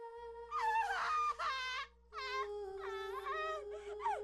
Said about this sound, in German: Und dann wurde aus dem Gespräch ein wahnsinnig schriller Schrei.